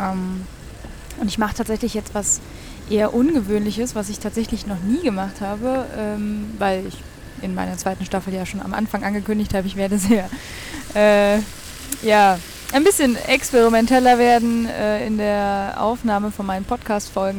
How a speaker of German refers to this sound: Ihr hört ein bisschen Geräuschkulisse im Hintergrund. Das, was sich so nach Wasser anhört, ist tatsächlich ein kleiner Brunnen, den ich hier im Hintergrund habe.